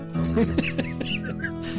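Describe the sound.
Several quick, high chirps, like small birds, flit over a steady, low humming voice or tone, bright, repeating irregularly across the short stretch.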